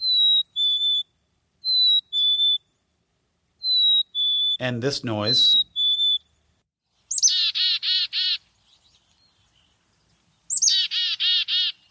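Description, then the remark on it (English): A black-capped chickadee whistles clear two-note calls several times, then gives two bursts of rapid buzzy chick-a-dee notes. A person speaks briefly in the middle; the bird sounds clear. “the bird we were playing here today is a black capped chickadee”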